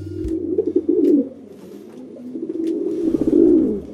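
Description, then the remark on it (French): A city pigeon coos in low, throaty, rolling phrases, fairly loud, with a brief pause before the warbling resumes and swells again. “Il y a les pigeons des villes, cauchemar des automobilistes garés sous les arbres, un peu gras, un peu ébouriffés, avec une démarche étrange et un roucoulement bien reconnaissable.”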